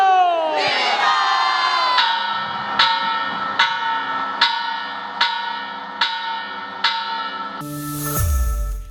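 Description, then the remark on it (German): A large independence bell rings out in slow, regular strokes, about eight resonant peals roughly every 0.8 seconds, over a loud, continuous crowd roar of cheering and shouting "Viva Mexico!" that swells at the end, at the traditional close of the Grito in Mexico. “bevor der Greto dann wieder traditionell endete mit dem Läuten der Unabhängigkeitsglocke, nämlich Viva Mexico!”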